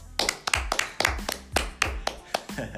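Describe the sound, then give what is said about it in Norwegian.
A short round of applause as a presentation ends: about a dozen distinct, crisp hand claps at a fairly steady pace, moderately loud, with no voices over them. “Applaus.”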